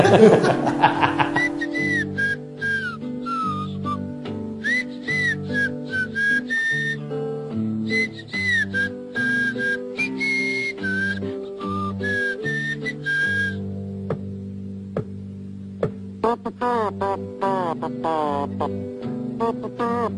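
A bright, lilting tune, Little John's whistling from Robin Hood, is whistled up front, sliding between notes over a steady instrumental backing of plucked bass and chords, with no talking.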